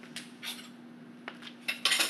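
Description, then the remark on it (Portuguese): Dishes and cutlery clink and clatter in a sink as they're washed, with several sharp metallic knocks and a busy rattle building toward the end over a steady low hum. “Eu seco. Eu lavo. O rolê do prato foi resolvido com sucesso.”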